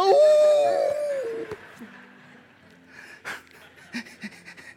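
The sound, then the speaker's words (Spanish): A man's voice imitates a coyote howl: one loud, wavering howl for over a second, then trailing off into quieter breathy panting sounds. “eh, eh, crema de coyote, ya aullaba como coyote y decía,”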